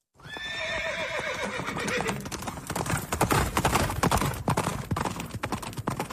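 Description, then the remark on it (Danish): A horse gives a loud, wavering whinny, then hooves clop steadily in a quick, uneven rhythm for several seconds, with no talking. “Jeg er så bange for heste.”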